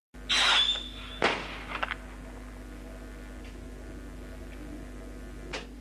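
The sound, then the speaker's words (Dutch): A whistle-and-bang firework rocket shrieks with a high, steady whistle for about a second, then bursts in one sharp bang followed by a few crackles and fainter pops over a low background hum. “Fluit en knalpijl, Vonden er nog geen één mis.”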